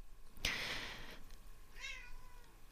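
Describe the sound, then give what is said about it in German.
A cat meows twice: a loud, drawn-out meow with a sharp onset, then a shorter, softer one with clear harmonics about a second later, against faint background hiss. “Estrella möchte auch was dazu sagen, vielleicht hast du es gerade gehört.”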